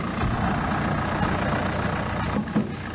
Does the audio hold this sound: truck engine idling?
yes